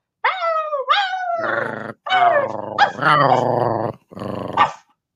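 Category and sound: animal, dogs growling and barking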